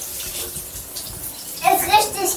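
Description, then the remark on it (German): Cold tap water runs steadily in a broad hiss over apples being rinsed, growing louder and more splashy toward the end as it hits something in the sink; a child's voice chatters faintly alongside. “Dann, dann können die sich ein bisschen duschen. Die Äpfel können sich duschen.”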